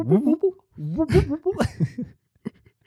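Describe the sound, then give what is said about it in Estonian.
A voice mimics the tired metallic creak a ribbon made, drawing out several wavering, pitch-bending groans in quick succession, fairly loud, then trailing off into a brief faint click. “nagu metall käib, teeb seda”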